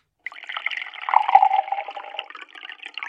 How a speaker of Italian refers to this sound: Era in preda a una crisi mi affrettai a versarle in un bicchiere d'acqua alcune gocce di sedativo.